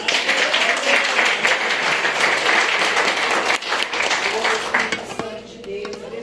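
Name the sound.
audience applause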